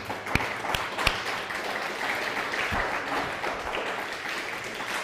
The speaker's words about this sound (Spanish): Dice Shabbat Chalón desde Santa Marta, Colombia. Un fuerte aplauso, Santa Marta, Colombia.